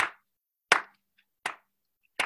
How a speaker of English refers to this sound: Okay, so I hope you guys are ready. Let's clap with me.